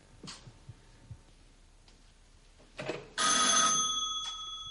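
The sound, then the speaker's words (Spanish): A loud electric doorbell at the door of a home rings in a sustained, insistent burst after a couple of quieter knocks and rustles, the bright metallic tone holding steady. “Tras la insistencia del timbre, la mujer se pone su bata y se asoma por la mirilla antes de abrir.”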